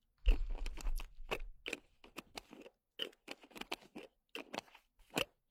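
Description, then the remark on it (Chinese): Soft, crisp tapping plays in irregular little clusters, light dry taps with brief pauses between them, quiet and slightly crunchy in texture, with no voices present. “一点点敲击音”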